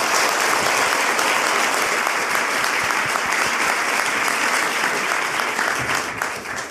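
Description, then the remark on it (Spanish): Sustained audience applause for author Alejandra Llamas, loud and dense, with many hands clapping continuously for several seconds before it begins to taper slightly at the end. “Así que un fuerte aplauso a Alejandra Llamas.”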